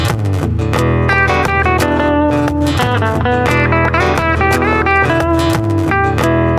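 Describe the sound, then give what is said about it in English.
A Fender electric guitar on the Fat Semi Clean setting, position one, with no effects on it, plays a busy run of picked notes and chords, fairly loud, with bright harmonic ringing and no voices over it. “This is it, just semi electric clean.”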